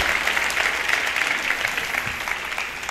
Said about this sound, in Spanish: Gracias muchachos, un aplauso a estos muchachos tan bellos, tan lindos, gracias.